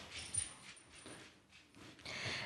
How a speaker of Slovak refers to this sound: Psík nám prebehol okolo.